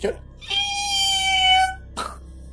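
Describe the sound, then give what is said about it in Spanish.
A voice imitates a whistling firework rocket called a chiflador, which rises from the ground into the sky and explodes: a steady, high whistle held for over a second, slowly dipping in pitch, then a short breathy burst mimicking the bang. “es, un pir es eh, que va desde el suelo hacia el, hacia el cielo y explota en el cielo”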